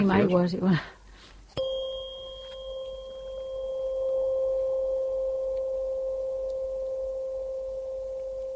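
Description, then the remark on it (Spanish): A tuning fork is struck once with a sharp attack, then rings as a steady, pure sustained tone that hangs on for several seconds, fading only slightly, after a brief bit of speech at the start. “Ese sería el tono, esa es la vibración, la frecuencia pura es una onda sinusoidal, es, una vibración pura de 528 hercios”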